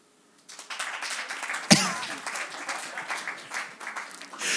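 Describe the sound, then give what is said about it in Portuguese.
An audience breaks into applause in answer to a host's question, dense clapping starting suddenly and continuing steadily, with one loud sharp clap or thud standing out early on. “Eu, eu, eu queria fazer uma pergunta antes de nós avançarmos, que é por aplauso das pessoas que estão aqui, amavelmente, quem é que nunca ouviu o nosso podcast? Por aplauso.”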